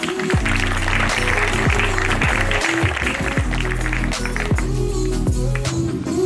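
An audience claps steadily for several seconds for all the performers, the loud, dense applause blending with upbeat music playing at the same time.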